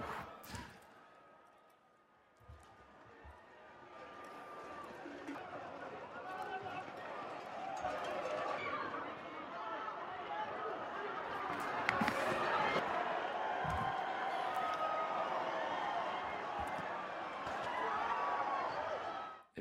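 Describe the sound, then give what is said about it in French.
A large crowd rushes through a street in Pamplona, northern Spain, running from bulls released in the street during the San Fermín festivities, a dense roar of hurried footsteps, shouts and scattered voices, with occasional sharp thuds and clatters rising above the steady, loud commotion. “direction le nord de l'Espagne, où des taureaux ont été lâchés en pleine rue jusqu'au 14 juillet.”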